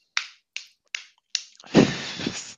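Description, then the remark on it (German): Four crisp, evenly spaced slaps of palms clapping together on mint leaves while making a cocktail, followed by a louder, longer rustling burst of noise, with no voices. “Ah ja, äh, du äh, machst, machst du dir gerade einen äh, Cocktail, haust dir hier Minze in die Hand, hä?”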